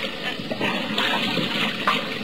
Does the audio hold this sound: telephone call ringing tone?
no